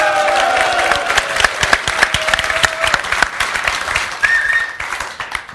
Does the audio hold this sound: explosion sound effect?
no